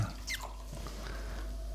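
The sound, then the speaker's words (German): A blond beer poured into a glass: a few squeaky, gurgling glugs at the start, then a soft, steady fizz of white foam settling. Quiet, with no voices. “Der kriegt, oh, das, ich mag das so an diesem Blond, wenn das so schön schäumt. Und auch noch weißer Schaum.”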